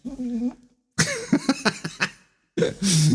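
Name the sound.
dog snorting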